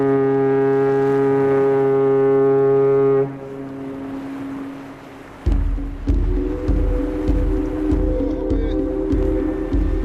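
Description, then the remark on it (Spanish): Deep ship horns, the port's sirens, blare across a harbour, one long sustained blast followed by overlapping lower horn tones that swell and pulse, loud and resonant with no one speaking. “Escuchamos la llamada de la mar, ahí están sonando las sirenas, las sirenas del puerto y ya estamos predispuestos a ir en busca de aventuras.”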